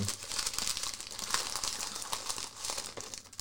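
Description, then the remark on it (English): Steady crinkling and crackling of packaging as a taped box of chocolates with messages in them is unwrapped, with brief sharper tearing bursts, continuous and moderately loud, no voices. “because the tape the box is, is taped on. So let's get this going.”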